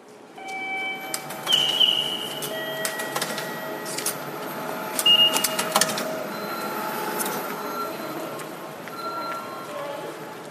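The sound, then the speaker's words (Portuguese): A train station ticket gate whirs and clicks as a ticket is inserted and processed, with brief mechanical bursts, while steady electronic platform signal tones ring over a busy station's background murmur. “A gente só usa trem de vez em quando, então a gente compra esse ticketzinho, aí tem uma entradinha, a gente coloca esse ticket ali dentro e aí você vai ouvir alguns sinais, que são os sinais da plataforma e o barulhinho do ticket também.”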